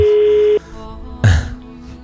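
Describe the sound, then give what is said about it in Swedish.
A telephone queue hold tone: a steady, clear electronic beep lasting about half a second, then quieter lingering tones and a brief muffled thump of noise. No one speaks. “Det är många som ringer just nu.”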